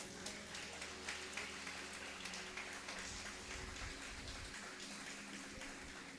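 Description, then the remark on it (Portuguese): A crowd applauds Jesus as the King of Glory, clapping together in a steady, dense wash of applause that holds at an even level for several seconds, with no voices breaking through. “Você pode aplaudir o Rei da Glória?”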